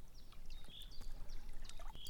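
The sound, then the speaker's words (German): Water sloshes and splashes in soft, irregular bursts as someone wades through shallow water, with faint trickling between the movements and no voices; Miriam is wading into the water toward Claudius. “Miriam aber wartet ins Wasser und geht auf Claudius zu.”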